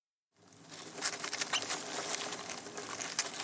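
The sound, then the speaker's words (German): Dense, continuous rustling and scrabbling with high-pitched squeaks from dozens of rats living deep inside a ship, active at night, steady throughout after a brief silent start. “Das Fiepen und Rascheln ist so laut, dass einige kaum schlafen können.”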